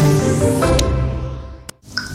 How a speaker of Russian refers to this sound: Так звучит плохая крыша во время дождя.